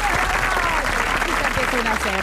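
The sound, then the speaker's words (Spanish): Steady applause for Monday from a show's audience, a dense wash of clapping that fills the whole clip at a strong level, with voices talking over it. “Se escucha el aplauso para el lunes.”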